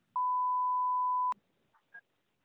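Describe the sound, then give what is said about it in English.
A telephone tone sounds while calling a construction company: one steady, clear electronic note held for just over a second, cutting off sharply, followed by a couple of faint, brief blips and quiet. “We dialing them.”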